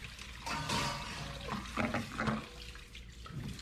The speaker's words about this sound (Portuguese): Sabem por quê? Porque ela foi lavar a louça. E eu fiquei ali.